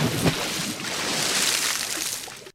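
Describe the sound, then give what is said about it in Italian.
A splash as someone dives into water, followed by a steady wash of churning, bubbling water that lasts a couple of seconds before cutting off abruptly. No voices are heard. “Era un tuffo.”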